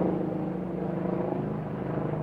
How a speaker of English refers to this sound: Oh, we've got a helicopter coming. For this one, we may pause for a moment, guys.